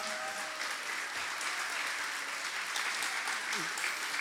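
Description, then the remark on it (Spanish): Steady applause from an audience at a church service, applauding the Lord for all the fathers: a dense, continuous patter of many hands clapping at an even level for several seconds, with faint voices mixed in. “Le damos un aplauso al Señor por todos los papás.”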